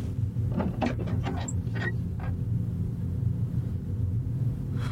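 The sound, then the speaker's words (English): A back door is pulled open with a short run of rattling, scraping clicks in the first couple of seconds, set against a steady low rumble that continues after the movement stops. “Okay, I'm at the back door.”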